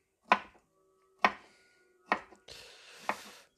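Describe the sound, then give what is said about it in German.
Four sharp knife chops cut a quarter of a cucumber into small pieces for a salad on a cutting board, spaced about a second apart, each a crisp thud with a short ringing tail, with a brief hiss of movement before the last. “Dann nehmen wir uns ein Viertel von der Gurke, halbieren die und vierteln die dann noch einmal und schneiden dann da kleine Stückchen runter.”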